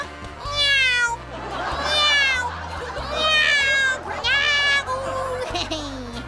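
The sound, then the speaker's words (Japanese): A voice imitates a cat, letting out several drawn-out, wavering meows in a row, fairly loud, with a steady low hum running underneath. “ってやっぱり猫なのね猫はこたつで丸くなるんだもんねそう僕は猫だから”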